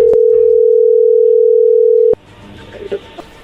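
A telephone ringing tone sounds while a call is placed: one steady, loud, low-pitched tone holds for about two seconds, cuts off with a click, then faint background noise.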